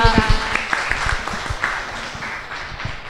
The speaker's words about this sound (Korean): 제가 네, 여기까지 오셔서 이, 이 자리가 참 뻘쭘할 텐데 여기까지 나와주셔서 박수 한번 주시죠.